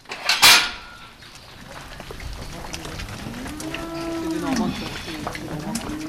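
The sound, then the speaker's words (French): A sharp metallic clank rings out at the start, then a cow gives a drawn-out, wavering moo amid shuffling barn noise as dairy cows leave the barn after milking, heading to the pasture, on a farm in Argentré-du-Plessis, Brittany, France. “Après la traite, les vaches quittent l'étable sans demander leur reste, direction le pré.”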